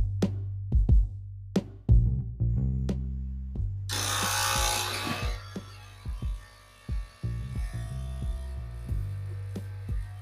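An espresso machine brews, its pump droning in a low vibrating hum broken by sharp clicks, with a brief loud burst of hissing steam partway through. No one speaks.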